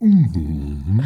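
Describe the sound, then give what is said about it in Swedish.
A person imitates a growling morning stomach with a low, drawn-out vocal groan, fairly loud, dipping in pitch and then rising again at the end over about a second. “det är alltså inte en dinosaurieval”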